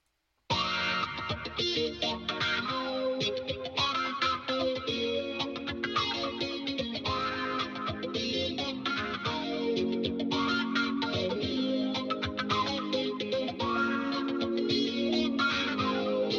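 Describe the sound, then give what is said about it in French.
A pop song kicks in after a brief silence, an instrumental stretch of layered, effect-washed synths and guitar over a steady beat, loud and continuous with no singing yet. “Euh, donc je suis très impatient d'écouter euh, ce nouveau single”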